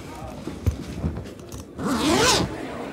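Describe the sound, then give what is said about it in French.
A toiletry bag's zipper is pulled open in one quick, rasping sweep after a few soft handling clicks and rustles, the zip noise rising bright and fairly loud before stopping. “Ça, c'est la trousse de toilette qu'elle vient d'ouvrir.”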